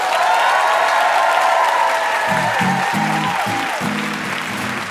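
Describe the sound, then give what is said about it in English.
Loud, sustained audience applause for guest Neil Gaiman on the NPR show Ask Me Another, a dense wash of clapping from a sizable crowd, with a low musical tone briefly rising beneath it toward the end. “And one more hand for our VIP, Neil Gaiman.”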